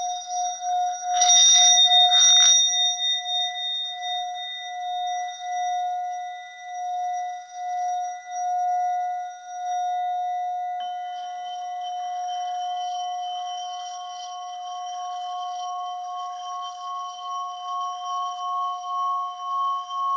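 Two Buddhist orin bowls are rubbed and sounded together, ringing in long, sustained metallic tones, beginning with a couple of bright struck accents, then humming steadily with a gentle wavering pulse. No speech.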